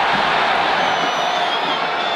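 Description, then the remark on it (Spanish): A dense, steady roar of a large stadium crowd during a football match fills the space, a continuous wash of many voices with faint cheering and whoops rising within it, loud and unbroken throughout. “Escucha a la gente ahorita que decían en la jugada de Soteldo cómo se quedaron con ganas de gritar algo”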